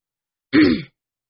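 throat clearing

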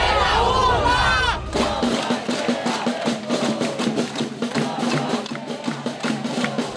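protest crowd shouting

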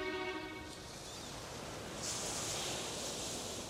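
sea waves

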